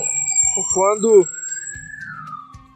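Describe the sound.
An ambulance siren wails, one long tone slowly rising and then falling as the vehicle passes, while a man keeps talking over it.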